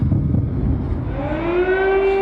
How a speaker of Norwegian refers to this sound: Deretter gikk sirenene i hovedstaden Kiev.